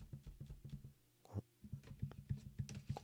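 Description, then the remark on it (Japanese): Fingers tap and knock on a desk holding a microphone on a stand, the mic picking up the touch noise as a run of dull, boomy thumps in an uneven rhythm, with a short pause partway through; no one speaks. “えっ、ー、とね、まあ多分使ってたらね、こう、あの、タッチノイズっていうかね、この、こういう音。こう机触った時の音とか、”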